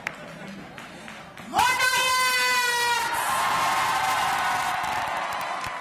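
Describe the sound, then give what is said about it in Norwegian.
A quiet stretch gives way to a sudden loud, sustained shout from an election night crowd, which swells into steady, noisy cheering and roaring that carries on to the end. “Men dette er lyden av valgnatt, folkens.”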